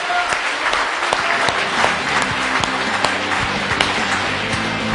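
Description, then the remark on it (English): A church audience claps steadily and loudly for the Lord at the end of a service, a dense wash of many hands with sharp individual claps popping out, continuous for the whole stretch with a faint murmur of voices underneath. “One more time, give the Lord a big hand.”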